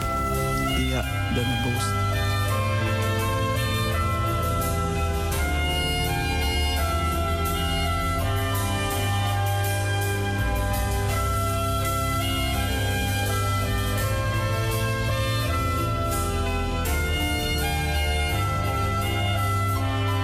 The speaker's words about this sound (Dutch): En we luisteren even weer naar een muziek.